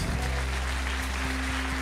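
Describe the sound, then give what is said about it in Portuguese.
Steady crowd applause, a dense wash of clapping from many hands, with a low electrical hum running underneath and no one speaking; the audience applauds God for a woman who overcame cancer four times. “Você pode aplaudir a Deus por isso?”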